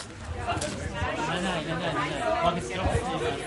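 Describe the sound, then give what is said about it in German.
Steady murmur of many art enthusiasts talking at once inside a white tent in the garden of the Villa Flora in Winterthur, in bad weather; overlapping voices form a continuous babble with no single speaker standing out. “In einem weißen Zelt haben sich inzwischen ein Haufen Kunstinteressierte versammelt.”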